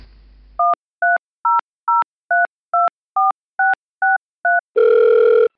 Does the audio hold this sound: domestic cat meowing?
no